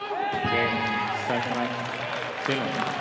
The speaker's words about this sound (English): As he soaks up the applause, he is a winning machine right now.